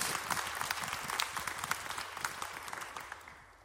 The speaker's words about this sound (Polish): Un aplauso para Jesús. Oddajmy Amen. oklaski Jezusowi.